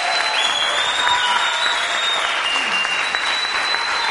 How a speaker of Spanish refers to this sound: Queremos primero brindarle un gran aplauso al señor Alberto Mayol.